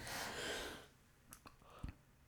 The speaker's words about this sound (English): you're yawning, uh-huh. yawning, yawning.